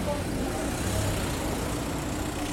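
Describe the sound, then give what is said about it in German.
A steady, fairly loud wash of car traffic, with a continuous engine rumble and roar that holds without pause for the whole stretch. “Was auch hier wieder läuft, sind Autos.”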